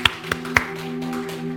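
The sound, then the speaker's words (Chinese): Three sharp claps in quick succession, evenly spaced, then they stop, leaving a steady low electrical hum with no talking. The clapping is applause given to God during a church service. “好，我们给神一个掌声。”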